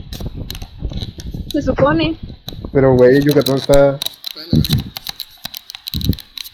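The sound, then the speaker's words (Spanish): A can of tuna being opened, its opener giving a steady run of sharp ratcheting clicks that continue beneath two people chatting. “Estoy abriendo la lata de atún que va a ser mi comida de mañana.”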